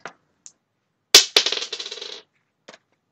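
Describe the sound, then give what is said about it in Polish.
A metal fork clatters onto a hard floor: a sharp first impact, a second hit, then a quick series of bouncing rattles that fade out, with faint clicks before and after. “No, aż komuś widelec spadł, taka cisza się zrobiła.”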